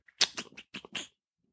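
A neighbor's dog yaps about five times in a quick, steady burst in the background, faint and a bit muffled, with no one talking over it.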